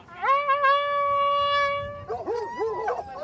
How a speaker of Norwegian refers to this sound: En stor gruppe av velstående menn i galante rideuniformer til hest. Fulgt av en enda større flokk blodtørstige hunder. Jakten er i gang.